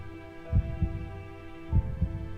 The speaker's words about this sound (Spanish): El pulso de las rodillas magulladas se acompasa con los latidos del corazón.